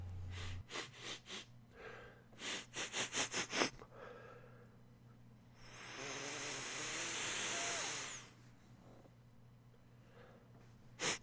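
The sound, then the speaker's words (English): A run of quick, sharp nose sniffs in rapid succession as someone sniffs out a smell to follow a trail, followed by a long drawn-out breath and a last short sniff at the end. “It was a lot of sniffing.”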